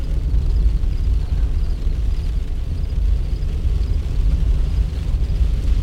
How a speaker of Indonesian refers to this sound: Kini, hujan turun makin deras.